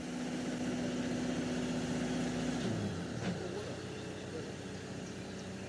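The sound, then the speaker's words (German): Machinery at a railway track construction site in Pinneberg, where the track is being renewed with new ballast, sleepers and rails: a loud, continuous engine drone with a steady hum that slides down in pitch partway through, then keeps rumbling. “Und nun besuchen wir eine Gleisbaustelle in Pinneberg.”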